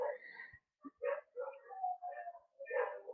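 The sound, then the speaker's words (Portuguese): Several dogs howl and yelp together outside at night in a wavering, overlapping chorus, with brief gaps between their drawn-out cries. “Os cachorros uivando pra caralho, mano.”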